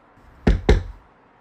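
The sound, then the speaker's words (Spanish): Two firm knocks on a door in quick succession, solid, with a dull wooden thud. Nothing else follows but a faint background hush. “Espérate, espérate, que están tocando la puerta.”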